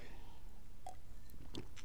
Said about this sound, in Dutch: Even een slokje water.